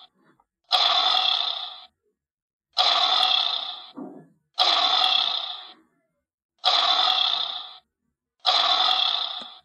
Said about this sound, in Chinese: 下面我给你们听一下狮子的叫声。